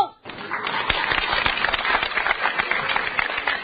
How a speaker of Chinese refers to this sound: 谢谢。就从观众今天这么热烈的掌声，今儿的戏就好唱了。